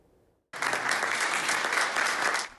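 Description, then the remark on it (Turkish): A burst of applause begins abruptly after a brief quiet moment, dense steady clapping from a group that holds loud and even for about two seconds before tapering off, as an 80-year-old doctor who beat coronavirus walks down the hospital stairs on discharge after 16 days of treatment. “Alkışlarla dimdik indi hastanenin merdivenlerinden.”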